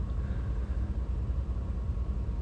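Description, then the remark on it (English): Steady low rumble of a pickup truck cabin on the move, a continuous engine and road drone with a faint hiss above it, the truck no longer squeaking, and no voices. “I just realized my truck stopped squeaking.”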